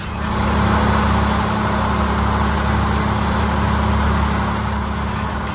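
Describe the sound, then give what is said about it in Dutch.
A steady, loud mechanical drone with strong low-frequency hum and a dense, grinding wash above it: heavy drilling machinery running continuously without pause on the seabed of the North Sea, drilling for oil and gas. “Als het aan experts ligt, dan klinkt het in eh, bikinibroek op de zeebodem... namelijk ongeveer zo binnenkort.”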